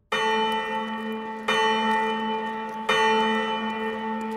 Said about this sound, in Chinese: 猴子警长一把抓起了啄木鸟，刚要走向雕塑镇的警察局，突然一阵响亮的钟声传来。